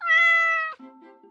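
A cat gives one loud, drawn-out, high meow lasting most of a second, then a softer, lower murmur trails off briefly. No one speaks.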